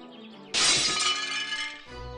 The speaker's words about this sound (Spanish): Preocupados porque Grillo no abría la puerta, decidieron romper una ventana para entrar en el interior de la casa.